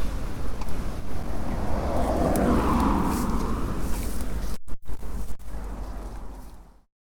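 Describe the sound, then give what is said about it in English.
Strong, cold wind roars and buffets against the microphone in a continuous low, rushing blast during a walk along the busy A354 back to the car park at Ferrybridge, with a couple of brief dropouts near the end before it cuts off. “This has been a cold and windy walk.”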